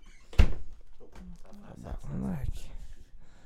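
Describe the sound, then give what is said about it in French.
A door slammed shut by the wind makes one loud, sharp thud near the start, followed by quieter murmuring voices and faint background noise. “Excusez, le vent, il claque.”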